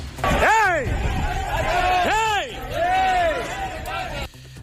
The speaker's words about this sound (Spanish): agricultores que se concentraban a las puertas de la Asamblea, unas 200 personas, bloqueaban ayer por la tarde las entradas y salidas del Parlamento